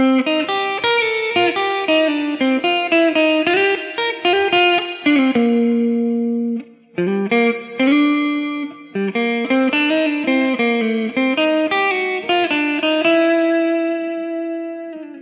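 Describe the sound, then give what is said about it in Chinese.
An electric guitar plays through an amp with a reverb pedal placed before the amp head, amp and pedal settings unchanged: sustained, ringing chords and melodic lines with a lingering reverb wash, pausing briefly twice midway. No talking. “那接下来呢，我不改变音箱和效果器的任何参数设置，但是呢，把混响效果器挪到箱头之前。那声音呢，就是这个样子的。”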